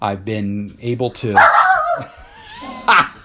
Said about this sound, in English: That's our dog. Love it.